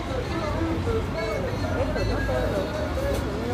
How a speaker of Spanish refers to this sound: Pero vinculado también con cómo suenan los mercados, ¿no? con el sonido de los mercados